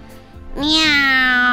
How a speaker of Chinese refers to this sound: 喵！不好了，哪来的三只猫？右边又有猫叫，